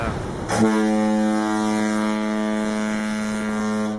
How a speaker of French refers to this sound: Oh, que j'aime cette corne de brume. C'est le klaxon de la méhari de Xavier.